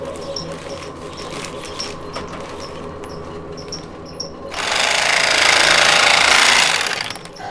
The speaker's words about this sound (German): Und dann füllst da wieder zweieinhalb Kilo rein und dann kann man die nächste, die nächste Ladung in den Sack füllen. Waage und wird nochmal kontrolliert, ob das Gewicht passt. Und wenn das stimmt, dann wird es mit der Nähmaschine zugenäht.